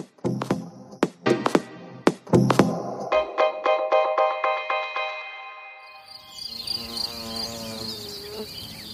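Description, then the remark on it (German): Insects buzz and hum steadily, a bee-like drone that wavers in pitch, joined by a few sharp knocks early on and a brighter, layered buzzing toward the end, in a cinema advert for a referendum to save the bees. No one speaks. “Es summt und brummt im Kinospot zum Volksbegehren Artenvielfalt rettet die Bienen.”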